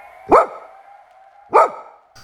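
Two loud, sharp dog barks spaced over a second apart, close by, with a low steady hum in the background and no voices.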